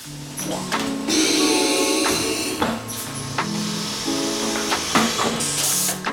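Loud, sustained hiss of steam over a steady mechanical hum, with a few sharp knocks and bursts of venting as a vinyl record press works, using 100 tonnes of pressure and 180 °C steam to turn PVC granulate into records.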